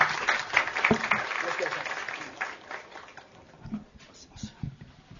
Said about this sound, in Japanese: では大きな拍手でどうぞ。よろしくお願いします。